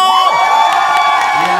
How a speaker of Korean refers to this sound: 이 정도 박소리는 맞아요. 서운합니다. 다시 한번 소리 함성!